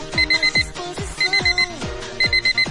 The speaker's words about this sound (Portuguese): Pega o seu despertador de 1,99.